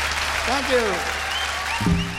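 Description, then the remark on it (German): Steady, dense applause from a crowd fills the whole stretch, clapping loudly and continuously while a couple of voices call out over it. “Das ist schon der Applaus”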